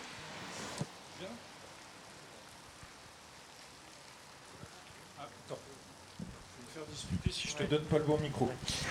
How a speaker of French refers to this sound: Bravo pour votre courage sous la pluie.